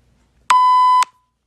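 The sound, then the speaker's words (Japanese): A single steady electronic tone from a neighbourhood association PA system in Nishihata 1-chome, Japan, before an announcement of a children's club recycling collection: one loud, flat mid-pitched beep lasting about half a second, clicking on and off, with no voices. “あの、その時の廃品回収の放送が、あの自治会に入って、そしてマイクのところに行って、そしてマイクのところオンしたら、あの、町内の放送になるんです。”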